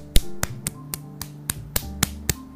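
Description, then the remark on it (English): Nine sharp claps in a steady, even rhythm, each a crisp snap standing out over a faint low background hum, with no talking. “Give yourselves a be wise clap”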